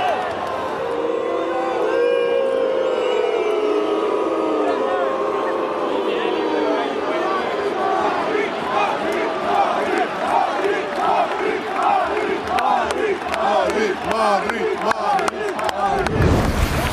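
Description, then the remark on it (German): A huge stadium crowd of 93,702 football fans, Union supporters, chants loudly in unison, the massed voices swelling into a steady, rhythmic chant before cutting off abruptly at the end. “Also, 93.702 Zuschauer. Das ist der höchste, höchste Zahl das ist auf dieses Jahr auf jeden Fall Rekord.”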